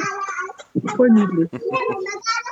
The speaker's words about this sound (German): Kein, kein Straßenlärm, kein, keine Autos, nur die lachenden und spielenden Kinder hier den ganzen Tag